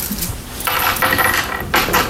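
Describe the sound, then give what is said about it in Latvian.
Coins drop and clatter into small patterned dishes in quick bursts, a few metallic jingles and rattles with brief pauses between, no voices, as a Latvian ministry adviser demonstrates how state funding is divided among schools. “Ministrs Andris Čakšs no jaunās vienotības, padomnieks Sergejs Ancupovs pat bija izdomājis attraktīvu veidu, kā ar rakstainiem trauciņiem un monētām demonstrēt valsts dotācijas sadalīšanu skolām.”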